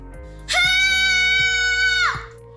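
A child lets out one long, piercing scream, loud and close, holding a steady high pitch for about a second and a half before cutting off, with a low hum underneath.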